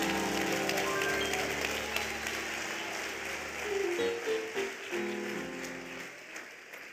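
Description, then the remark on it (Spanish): An audience claps steadily for Jesus during a sermon, a dense crackling wash of many hands lasting several seconds, with sustained musical tones underneath that shift pitch midway as the applause carries on. “¿Alguien puede darle un aplauso a Jesús?”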